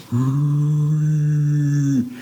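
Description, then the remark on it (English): A father imitates a foghorn as his call to his children: one low, steady, buzzy drone held for about two seconds, loud and unbroken, ending with a slight upward lift in pitch. No other talking. “I, I had read somewhere that a foghorn carries a really long distance because it's low.”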